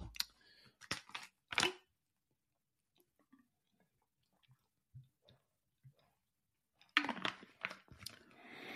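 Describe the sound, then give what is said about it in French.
Someone takes a small sip of a drink: a few sharp clicks and a brief slurp, then faint swallowing sounds in near silence, ending with a burst of handling noise. “Je prends une petite gorgée et je m'engage dans.”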